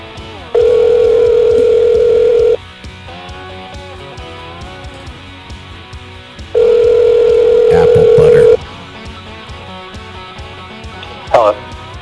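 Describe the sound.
Two long steady ringback tones on an outgoing phone line, as a call is placed to a guest from a live radio studio, each about two seconds, separated by a pause, with faint background voices and noise between them.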